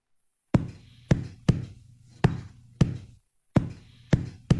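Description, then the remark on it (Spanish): Eight hollow, resonant knocks struck by hand on the body of an acoustic guitar, used as a percussion sound and combined with a kick drum. They come in a steady rhythm with a short pause before the last three, each with a boomy low body tone that rings briefly. “Es la guitarra acústica, le pegué pum, pum, pum, pum.”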